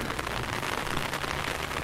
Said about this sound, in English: It's raining. So I'm just going to open this green umbrella